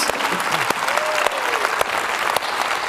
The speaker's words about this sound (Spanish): ¿Por qué nos le damos ese aplauso otra vez al Señor?